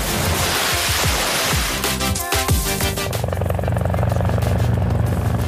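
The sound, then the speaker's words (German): A helicopter roars, its rotor thumping in a steady rapid chop over a dense wash of engine and wind noise, loud and continuous throughout; a rescue helicopter taking off and flying to emergency missions. “Heute heben wir ab und zwar mit dem Hubschrauber geht's zu den Einsätzen.”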